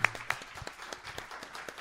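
A short burst of audience applause: scattered, irregular claps at moderate loudness, thinning out quickly rather than building into a dense roar, with no talking over it.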